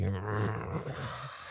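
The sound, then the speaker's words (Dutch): A person imitates a low, rumbling growl with their voice, a single sustained snarl lasting over a second, fairly loud with no other sounds around it. “Hij, hij gromde regelmatig naar ze, letterlijk.”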